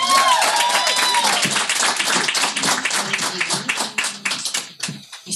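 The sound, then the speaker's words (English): A crowd at Sundance applauds steadily to welcome Debra Lee, many hands clapping in a dense, loud wash with a few whoops or cheers near the start, tapering slightly toward the end. “Um, so let's please welcome Miss Debra Lee to give her a round of applause.”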